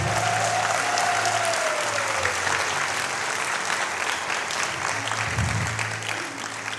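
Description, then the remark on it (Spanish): A church audience claps for the Lord in a dense, continuous wave of applause, loud and sustained for several seconds, with a faint tonal hum gliding downward early on. “Se puede darle un mejor aplauso al Señor.”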